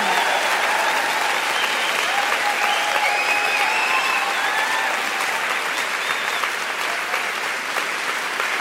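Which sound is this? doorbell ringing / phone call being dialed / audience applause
audience applause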